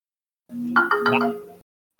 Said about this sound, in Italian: Eh, no, no. È arrivato un sms.